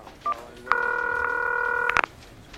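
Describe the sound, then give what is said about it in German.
Telephone dialing tones as Amram joins a phone call between Richardson and John over a Napster deal: a brief electronic beep, then a steady, fairly loud multi-pitched phone tone held for over a second, with faint clicks and an abrupt cutoff. No one speaks. “Amram klingt sich in ein Telefonat zwischen Richardson und John ein, der den Vertrag blockieren könnte.”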